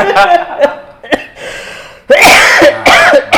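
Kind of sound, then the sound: human body sound, coughing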